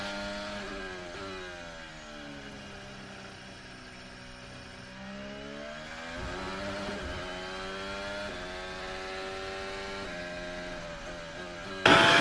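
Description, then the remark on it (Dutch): A racing car engine screams in onboard footage from Max's and Perez's cars, its pitch sweeping down and back up through gear changes and braking, loud and continuous with a harsh, buzzing whine and no talking. “Met dat je en de camera van, vanuit de auto van Max ziet en vanuit Perez.”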